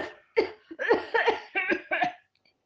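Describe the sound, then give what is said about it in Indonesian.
A voice acts out a run of about five harsh, breathy coughs in quick succession, as a symptom of COVID-19, fairly loud, trailing off into quiet at the end. “Ketika aku datang, aku akan membuat sesak nafas, batuk,”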